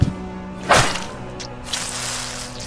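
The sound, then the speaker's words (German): A single sharp, violent whack lands loud, a cracking blow as knife blades cut through flesh, shatter bone and cleanly sever a hand with a great flow of blood, followed by a softer, drawn-out hissing rush as the sound trails off. “Die Messerklingen dringen durch sein Fleisch und zerschmettern seine Knochen und trennen die Hand sauber, um mit einem widerwärtigen, unmäßig großen Fluss von Blut ab.”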